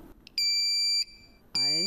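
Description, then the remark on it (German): A small electronic buzzer, switched on through a transistor by a tiny current through the fingers, sounds two loud, steady high-pitched beeps, about half a second each with a short pause between, and a voice briefly overlapping the second. “Den brauche ich, um diesen kleinen Summer einzuschalten.”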